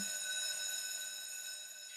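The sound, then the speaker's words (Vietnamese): A school bell rings to call students into class, one steady, unbroken peal, a bright metallic tone rich in high overtones that holds for about two seconds and eases slightly at the end. No one speaks. “Chuông vào lớp liền treo lên.”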